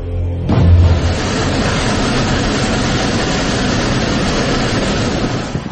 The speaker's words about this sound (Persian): صدایی که میشنوید مربوط به یک تورنادوی بسیار شدید و هولناک در کالیفرنیای آمریکاست.